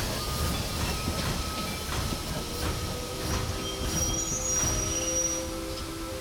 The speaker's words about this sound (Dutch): In de verte klinkt het donderende geraas van een stoomlocomotief die langzaam maar zeker dichterbij komt.